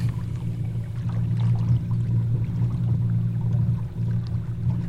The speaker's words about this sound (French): C'est calme hein, comme moteur ça change tout. En fait, le, fait d'avoir que des moteurs électriques, ça change tout. On peut se croiser, on peut discuter en se croisant, euh, ça fait pas de vague.